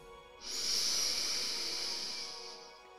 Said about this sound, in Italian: Quando si pratica la meditazione, il primo step è quello di respirare profondamente.